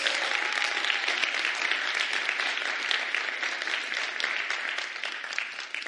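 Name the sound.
audience applauding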